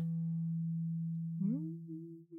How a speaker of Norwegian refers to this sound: Men da skal man sette på den lyden på telefonen, og da blæser den ut vann.